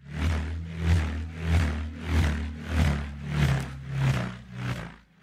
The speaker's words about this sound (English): And the instrument you heard, that's the sound of a bullroarer. The bullroarer is the traditional instrument of Sydney, specifically for males. The instrument itself is shaped akin to what you'd call a surfboard today, but a very mini one,